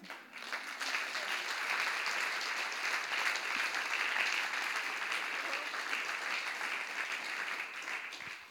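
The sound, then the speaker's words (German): Sustained applause from an audience at a talk evening at Universum Bremen fills the space, a dense wash of many hands clapping at steady volume for several seconds, with no speaking over it. “Also ein Riesenapplaus.”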